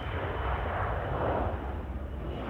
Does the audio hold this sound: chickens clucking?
no